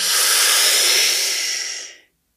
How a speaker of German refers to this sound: Und in drei Sekunden atmen wir gemeinsam ein. Drei, zwei, eins. Einen tiefen Atemzug ein, vollständig ein.